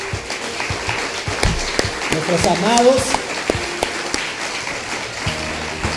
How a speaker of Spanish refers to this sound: ¿Por qué no lo despedimos con un fuerte aplauso a todos nuestros,